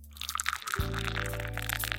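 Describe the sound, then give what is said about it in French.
Cola being poured, with a dense, crackling fizz throughout and a steady low pouring rush that begins a little under a second in and continues to the end. No one speaks. “c'est du coca”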